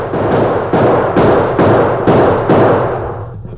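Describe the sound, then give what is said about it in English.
A rapid volley of loud gunshots fired toward men across a street, roughly six or seven bangs in quick, fairly even succession, each trailing into a noisy echo with no pause between them. No one speaks. “the Lone Ranger running toward him, his gun spitting lead toward the men across the street”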